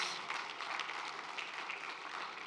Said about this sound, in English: One more time. Let's give a give a great clap offering our uh, mothers.